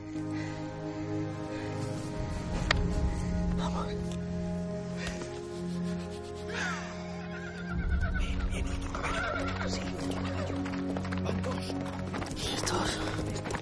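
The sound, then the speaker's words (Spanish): A horse carrying two riders, a false priest and a false Frenchman, whinnies over a steady, dense background while its hooves clop along in loose, uneven bursts as it arrives. “Llegan el falso cura y el falso francés en un caballo.”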